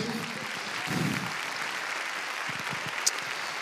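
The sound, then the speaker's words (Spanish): A large audience at a religious service applauds steadily for several seconds in praise of God, a dense wash of clapping, with a brief murmur of voices and one sharp louder clap near the end. “Déselo fuerte al rey.”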